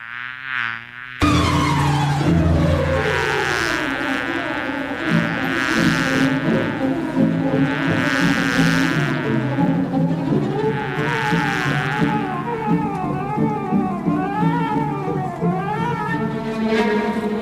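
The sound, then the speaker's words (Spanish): Rimsky-Korsakov's Flight of the Bumblebee, played by the Berlin Philharmonic Orchestra conducted by Zubin Mehta: a fast orchestral piece with rapid whirring string runs that swirl up and down in pitch over a full, loud accompaniment, starting abruptly after a brief fragment. “El vuelo del moscardón, del compositor ruso Nikolai Rimsky-Korsakov.”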